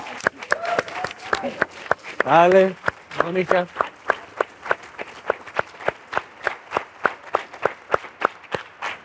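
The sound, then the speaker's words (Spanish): A live audience applauds the invited guests with steady, rhythmic clapping in unison, continuing loudly throughout, with a voice briefly speaking over it near the start. “Vamos a pasar, gracias, un aplauso por favor a nuestras invitadas.”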